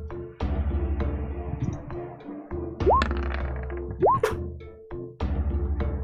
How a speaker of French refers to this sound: Vous entendez derrière vous le puissant son des tapes dans le dos. C'est quoi? Toshi et euh, Yorov qui sont restés à dire qu'ils sont bons. Là. Des tapes dans le dos qui, qui ah. résonnent ah, derrière.